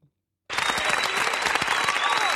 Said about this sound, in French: Donc euh, on l'applaudit.